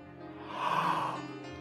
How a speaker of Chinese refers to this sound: 啊！爸爸又打了一个大大的哈欠。